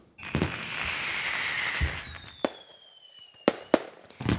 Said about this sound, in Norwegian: For eh, ei uke siden eh, feira vi starten av 2012 med mye fyrverkeri og kanskje noen nyttårsfasett.